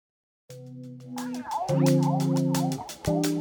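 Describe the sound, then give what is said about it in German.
A loud instrumental track with brisk, repeated drum hits, including doubled strokes, over sustained bass and synth tones. No voices. “Er muss irgendeine Doppel, äh, Double-Stroke-Figur spielen, zum Teil irgendwo.”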